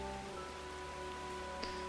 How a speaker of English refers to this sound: They then again set out Travelling the next day as the rain continues to thunder down from the heavens.